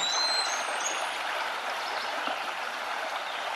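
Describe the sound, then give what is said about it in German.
A small brook in a forest babbles steadily over large, dry stones, its water no higher than ankle-deep: a continuous bright rushing and trickling with no pauses, no voices and nothing else standing out. “Wenn du magst, kannst du den kleinen Bach überqueren, indem du von einem Stein zum anderen springst.”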